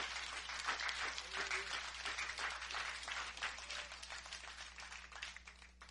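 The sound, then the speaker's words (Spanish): A church audience applauds steadily for several seconds, giving applause to Jesus, a dense wash of many hands clapping at once, tapering slightly toward the end. “Denle un aplauso. Denle un aplauso a Jesús.”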